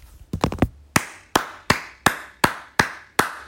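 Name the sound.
slow hand clapping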